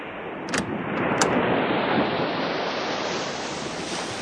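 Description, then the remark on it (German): A steady roar of surf at a secluded white beach with palm trees, waves washing in continuously and a couple of brighter splashing crests early on, fairly loud, with no voices. “Von meinem Schlafzimmer aus führt eine Verandatür mitten auf eine schöne, großzügige Terrasse mit weitläufigem Blick aufs Meer.”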